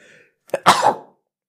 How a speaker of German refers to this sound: Und der Nieser wird auch übrigens drin bleiben, weil ich zu schneidefaul bin heute.